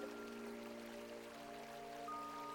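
A gently babbling river stream flows steadily throughout, a soft continuous wash of water with faint sustained tones humming underneath, and no one speaks.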